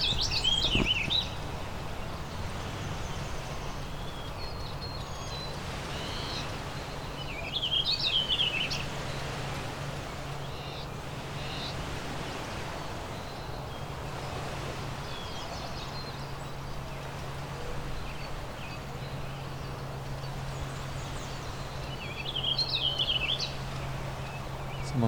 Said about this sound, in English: like the warbling vireo went up to interrupt the Tennessee warbler. A little weird.